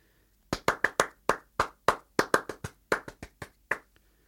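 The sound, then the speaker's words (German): A single pair of hands claps out a lively, uneven song rhythm, about seventeen sharp claps in quick groupings with brief pauses, ending on a fainter final clap; no one speaks. “Weil wenn man jetzt mal nur klatscht, ich sag nicht, was ich mache.”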